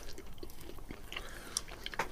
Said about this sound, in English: Um, quite crunchy because of all the tiny, tiny sesame seeds.